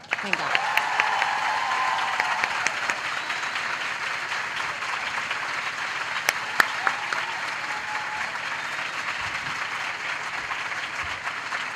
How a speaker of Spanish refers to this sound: Y queremos que le deis un aplauso gigante a Patricia Espejo.